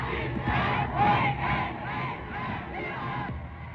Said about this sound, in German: Begeisterungsströme, Fackelzüge durch deutsche Städte, großer Jubel. Am 30. Januar 1933 wird Adolf Hitler von Hindenburg zum Reichskanzler ernannt.